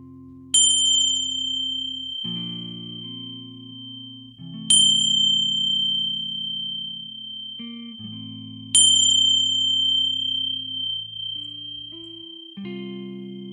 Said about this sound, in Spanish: Y ahora cuando oigas la campanilla, haces aquello que tengas ganas de hacer.